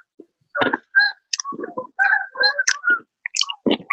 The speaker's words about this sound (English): Um, you got um, geese by you? Yeah, yeah, yeah. It's geese in back of my crib.